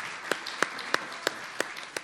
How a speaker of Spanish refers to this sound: Pues los molotes que aquí siguen con nosotros. Aplauso una vez más a los molotes.